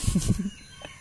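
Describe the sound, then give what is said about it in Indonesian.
Roosters calling back and forth in the early morning, around 5:44 am: a brief crow rings out in the first half-second, moderately loud, followed by a faint, quieter call trailing off near the end. “Ayam saling bersaut-sautan pantun”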